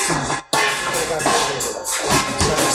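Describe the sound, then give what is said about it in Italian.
Busy restaurant kitchen noise fills the space: a steady wash of clatter, scraping and bustle with scattered sharp knocks, briefly cutting out for a moment before resuming at the same level. “Siamo in un ristorante, ristorante eh, c'è, c'è, la cucina, ci sarà il rumore.”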